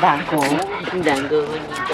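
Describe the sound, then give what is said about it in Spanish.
Small dogs yip and whimper in a busy, wavering run of high-pitched cries, steady throughout, with people talking over them. “Perritos. Perritos.”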